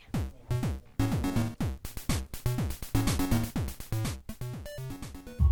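Bright, buzzy chiptune music with Game Boy–style square-wave tones, fast arpeggiated melodies and punchy synthetic drum hits driving a steady beat, loud with no voices.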